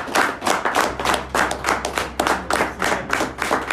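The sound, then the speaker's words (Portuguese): An audience at a Christian sermon applauds the word of God in a steady, fairly loud burst of rapid hand claps lasting a few seconds, with a faint low hum underneath and no talking. “Muito bem, vamos aplaudir a palavra de”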